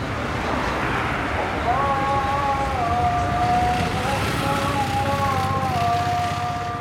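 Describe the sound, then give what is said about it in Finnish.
An afternoon call to prayer from mosques in the Eastleigh area of Nairobi, Kenya, a long, wavering chanted melody with held notes, rising over a steady wash of city traffic and wind noise. “Nairobissa Eastlandsin naapurissa sijaitsevan Eastlin alueen moskeijoista kuuluu iltapäivän rukoushuuto.”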